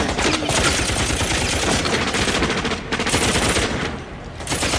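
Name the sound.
gunfire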